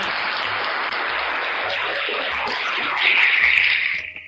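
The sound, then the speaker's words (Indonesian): A burst of applause in tribute to Chadwick, the King of Wakanda: dense rapid clapping from a small group that swells briefly louder toward the end before quickly dying away. No voices are heard over it. “Eh Chadwick oke kita tepuk tangan”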